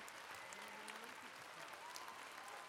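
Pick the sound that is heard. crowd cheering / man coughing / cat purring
crowd cheering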